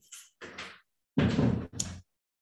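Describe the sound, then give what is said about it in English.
A door is shut: a few softer rattling, scraping handling noises, then a louder thud of the door closing followed by a brief latch clatter, with no talking. “Okay, shut the door.”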